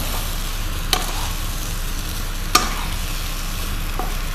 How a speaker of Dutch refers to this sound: Maar nu is het zo lekker om te roeren.